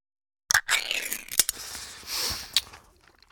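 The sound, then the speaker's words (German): A sardine tin being opened in an office: sharp metallic clicks and a crack, scraping and crinkling, then a brief hissing peel of the lid and one last snap, with no voices. “Während sie das Büro verlassen, hört Fausto, wie Merz eine Sardinenbüchse öffnet.”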